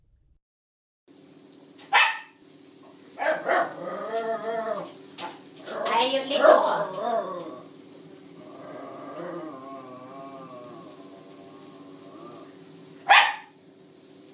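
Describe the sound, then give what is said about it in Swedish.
A dog nags for a taste of food with sharp, loud barks at the start and end and drawn-out, wavering whines and grumbles between them, while a person briefly scolds it. “Så hon tjatar väldigt mycket och ni har ett ganska spännande samtal.”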